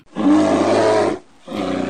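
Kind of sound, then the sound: animal, bear roar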